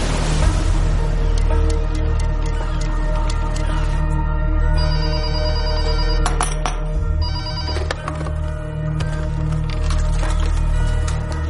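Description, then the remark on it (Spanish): A telephone rings steadily and loudly for several seconds in an office, its bright electronic tone repeating over a low background hum, with no one speaking. “Sarraj está en su despacho leyendo la prensa y coge el teléfono”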